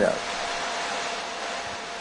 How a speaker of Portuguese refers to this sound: Desliga esse secador